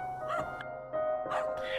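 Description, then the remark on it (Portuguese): A growing number of dogs bark near a house in a few short, sharp bursts spaced unevenly over a steady humming background, moderately loud and close. “A única coisa realmente estranha era a quantidade crescente de cães latindo todos os dias por perto da sua casa.”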